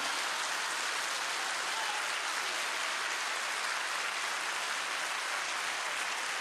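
An audience at a worship service applauds the Lord steadily, a dense, sustained wash of many hands clapping at once with no pauses or voices, holding an even loudness throughout.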